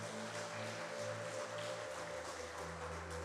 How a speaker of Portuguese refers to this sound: E se você crer nisso, aplauda Jesus.